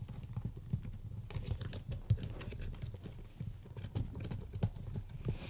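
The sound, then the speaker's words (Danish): A mixture being beaten in a bowl: a steady, rapid run of soft knocking and clacking strokes, even in rhythm and moderately loud, with no voices. “Nå, beat well. Now we beat it well.”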